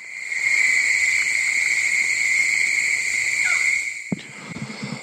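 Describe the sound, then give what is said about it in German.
A dense night chorus of insects and frogs at Cape Tribulation, north of Cairns in northeastern Australia: steady, high shrill buzzing tones layered over a busy crackle of calls, loud and continuous, then a sudden knock and a brief drop in the din. “und sind Geräusche vom Cape Tribulation, nördlich von Cairns, also ganz im Nordosten von Australien”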